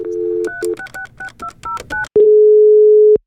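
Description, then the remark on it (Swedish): A brief dial tone, then a rapid run of about ten touch-tone beeps as a phone number is dialed to call a library developer, followed by a single long, steady ringing tone. Clear, with no voices. “jag blev lite sugen då på att ringa en biblioteksutvecklare.”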